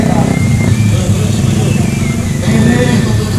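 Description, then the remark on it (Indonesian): A car engine rumbles loudly as it passes through a demonstration, its low drone holding steady with a slight rise near the end, while voices murmur in the background. “mobil mau kemana kali oh.”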